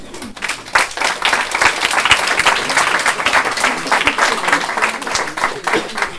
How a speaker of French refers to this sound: Allez, je veux bien qu'on les applaudisse.